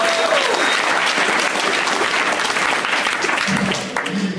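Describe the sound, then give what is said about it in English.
An audience applauds steadily for a comedian's opening set, a dense crackle of many hands clapping at once that stays loud throughout and eases slightly near the end. “Uh, one more time, let's have one more round of applause for Matt Fernandez, you guys.”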